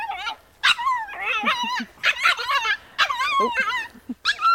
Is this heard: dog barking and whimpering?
yes